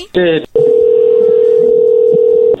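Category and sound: signal or alarm, telephone dialing tones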